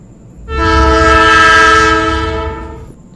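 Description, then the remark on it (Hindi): A loud, sustained train horn blares for about two and a half seconds at a station platform around five in the morning, a steady harmonic tone that swells in and fades out over a low rumble of rail noise, with no one talking. “सुबह के पाँच बज रहे थे प्लेटफॉर्म पर हल्की हल्की भीड़ थी नीलेश इधर उधर घूम घूम कर वेट कर रहा था अचानक हॉर्न बजा”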